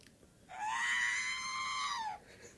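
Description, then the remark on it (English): A frightened robot droid lets out one shrill, electronic scream lasting under two seconds. It holds a steady high pitch before dipping slightly at the end, loud, with no talking. “I brought a sound clip because I can't make the quote itself.”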